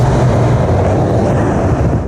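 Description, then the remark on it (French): An Audi e-tron GT electric car's artificial engine-like sound played on board, designed to evoke a combustion engine: a loud, steady low drone with a rushing, whooshing layer on top, continuous for about two seconds with no voices. “Audi a particulièrement travaillé euh, la sonorité à bord, donc une sonorité bien sûr artificielle, mais qui va finalement évoquer le monde du moteur thermique”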